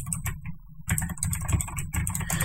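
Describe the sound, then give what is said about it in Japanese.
Rapid, uneven clicking of keys on a computer keyboard as someone types a search for song lyrics, with a brief pause near the start and then steady bursts of typing over a low background hum. “キーボードがうるさいんですよね。”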